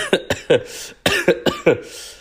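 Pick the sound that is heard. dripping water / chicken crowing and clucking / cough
cough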